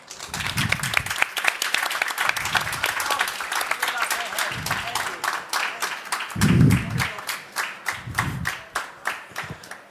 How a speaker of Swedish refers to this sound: En stor applåd för Julia Korkman!